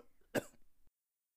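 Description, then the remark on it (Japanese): A single sharp cough from a husband at night bursts out over a low murmur of background noise, followed by a second or so of silence. “その夜も、やはりごほごほという咳が続き、”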